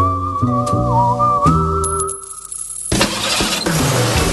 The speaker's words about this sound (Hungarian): Na, zendítsünk rá egy szignállal,